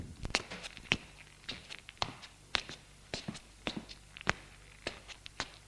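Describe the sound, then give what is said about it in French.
Footsteps of a young man carrying a suitcase walk down the corridor of a house toward the front door at a steady, unhurried pace, about a dozen sharp, clicking steps with no voices, set against a low background hum. “Il longe le couloir et se dirige vers la porte d'entrée.”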